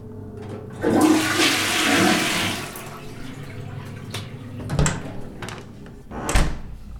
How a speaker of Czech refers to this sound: Tak teď jsem spláchnul, jdu se podívat, kolik to mělo momentální odběr. Odběr se zvýšil na skoro 3000 W a pomaličku to klesá.